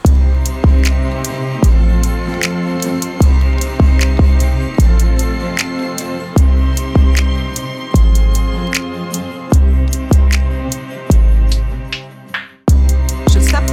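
A music track plays loud and up front, with heavy bass notes pulsing in a steady rhythm under sharp percussive hits and layered melodic parts. No one talks over it.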